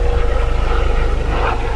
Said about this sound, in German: Das ist gerade ein Hubschrauber. Die Mikrofone kriegen das bombig mit, die sind wirklich gut.